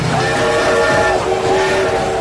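A loud train sound with a sustained horn-like whistle tone over steady rumbling noise, dipping briefly midway before continuing, with no voices present.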